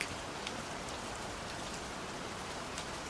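Steady rain falls at night in an even, hissing wash, with scattered droplet taps flickering through. No voices or other sounds break the continuous, moderate patter.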